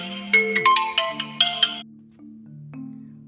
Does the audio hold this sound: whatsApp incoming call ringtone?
yes